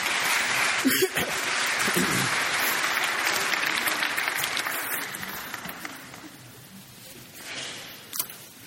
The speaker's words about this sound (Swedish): Ge dem här en varm applåd nu. Varsågod och sitt.